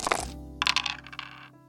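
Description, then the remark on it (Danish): A die is rolled across a hard board during a board game by a player hoping to roll a globe symbol: a sharp initial clack followed by a few quick rattling bounces before it settles, fairly loud, with no talking. “Jamen, jeg- jeg kommer jo ikke videre, hvis jeg ikke slår en globus.”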